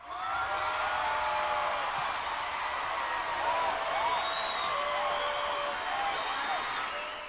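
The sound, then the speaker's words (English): A stock, generic crowd-cheer sound effect reused in a show: a crowd cheers steadily for several seconds, a dense roar of many voices with shrill whoops and whistles rising and falling through it, holding an even loudness throughout. “i say this if you pay attention you will probably not never be able to unhear it and i'm gonna i'll find the sound clip and i'll add it into this episode but there is a particular okay. particular cheering crowd noise oh, and it's right here yeah.”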